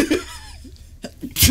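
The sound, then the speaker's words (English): A sharp, loud sneeze bursts out at the very end, preceded by a few quieter breathy, laugh-like sounds. “Bless you.”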